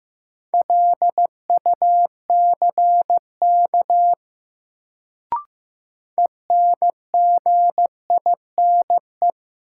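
Morse code sent at 15 words per minute in a new-word drill of sentences from the top 1500 words: a single steady mid-pitched tone keyed into short and long beeps, pausing briefly around a sharp click before the beeping resumes.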